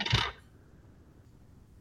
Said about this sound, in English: You rolled command on this? Yes. Use your command as challenge dice. Do your command number. Great. The first time rolling challenge dice on a social thing.